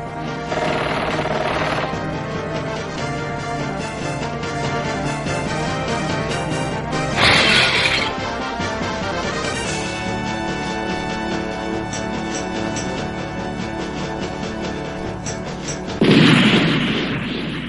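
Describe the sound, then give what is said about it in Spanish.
A dramatic video game intro that tells a very dramatic story, with dense orchestral music throughout, punctuated by loud crashing impacts and booming explosions, with big bursts around the middle and again near the end. No one speaks. “Bueno, estos que se escuchan este pedazo de intro que cuenta una historia muy dramática es el próximo juego del señor Albert Andreu.”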